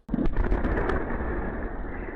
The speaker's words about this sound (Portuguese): A Rússia informou que derrubou um drone ucraniano perto de uma base aérea para bombardeios em Saratov. As imagens de uma câmera de segurança mostram o momento da explosão.